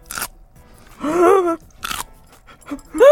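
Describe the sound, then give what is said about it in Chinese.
Crisp crunching bites into a small pickled cucumber from a just-opened jar, delivered frozen and thawed for 24 hours in a refrigerator, a few sharp bursts with pauses between, broken by a drawn-out hum of appreciation and a rising vocal sound at the end. “我跟你讲，冷冻完解送到你家，然后你要吃的时候解冻，嗯，解冻完，听众朋友，你在听吃的时候，黄瓜还是这个声音。”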